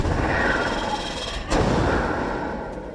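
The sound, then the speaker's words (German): A boat's engine rattles loudly and steadily on a river at night, with one sharp, fart-like bang cutting through about halfway before the clattering carries on. No one speaks. “Es rattert und klappert und am Ende, bevor es aufhört, überhaupt irgendwelche Geräusche zu machen, stößt es einen furzartigen Sound aus.”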